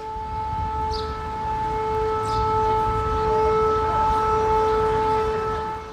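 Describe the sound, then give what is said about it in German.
A steady air raid siren in Krivirich, a city in the south, drones continuously and very loudly, its sustained tones holding level throughout over low rumbling background noise with no one speaking. “Das ist die Sirene aus Krivirich, einer Stadt im Süden, die auch ganz strategisch ganz wichtig war.”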